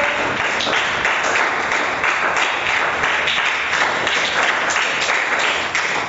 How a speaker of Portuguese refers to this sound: Aplauda o Senhor.